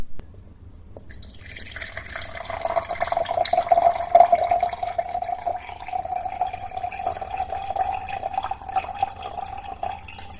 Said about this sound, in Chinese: 那就去倒杯水给我送来啊，我渴了，小狐狸。